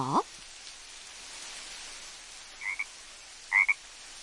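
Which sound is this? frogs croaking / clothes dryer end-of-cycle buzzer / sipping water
frogs croaking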